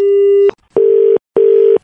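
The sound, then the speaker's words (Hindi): A loud, steady electronic telephone tone pulses three times in even beeps with short silent gaps, like the busy signal heard after a call drops, as a phone call cuts off because of a network problem. No one speaks. “hello network का थोड़ा problem है फोन कट जा रहा है”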